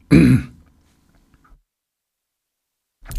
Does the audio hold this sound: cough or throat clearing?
yes